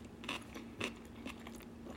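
Crisp crunching as someone chews pickled daikon radish with microwaved frozen rice, about five sharp bites at an uneven pace over a faint steady hum, with no talking.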